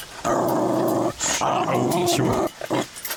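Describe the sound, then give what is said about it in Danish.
Two very large pit bull dogs growl deep and loud, two long rumbling snarls followed by a few short clipped growls at the end, with no one speaking. “Og det er altså to kæmpe store pitbulls, du har stående her.”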